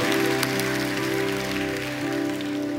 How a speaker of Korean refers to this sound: 안에 계신 성령님께 영광의 박수를 드리겠습니다.